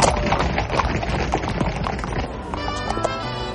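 Bulls followed by riders on horseback run along a street and through a town square: many hooves pound and clatter quickly in a dense, irregular rush of loud knocks, with a brief higher-pitched cry rising near the end.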